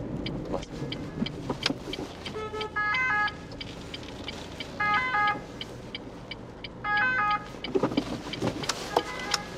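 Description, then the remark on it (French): An ambulance siren passes during a drive, making the driver manoeuvre, its two-tone wail rising in three short bursts over steady engine and road rumble. There is no talking. “Oh là là, l'ambulance, ça me fait faire une manœuvre, je te raconte pas.”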